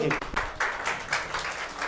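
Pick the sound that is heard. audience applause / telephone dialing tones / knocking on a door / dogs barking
audience applause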